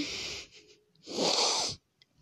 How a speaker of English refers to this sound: Um, sorry, I'm sniffling.